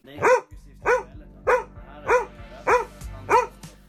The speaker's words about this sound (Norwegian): Og hva betyr bjeffing egentlig?